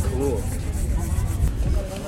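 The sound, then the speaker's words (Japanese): A handsaw rasps through wood in quick, steady back-and-forth strokes during a contest in which competitors race to saw all the way through, a rough scratchy rhythm running under a constant noisy background, with voices calling out over it. “そっと置いてさあノコギリいきましょうノコギリ全部切る全部切る”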